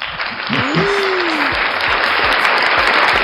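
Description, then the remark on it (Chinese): A loud, steady burst of applause, dense clapping sustained for the whole stretch, with a brief rising-and-falling voice cry near the start riding over it. “哎，说好的掌声呢？”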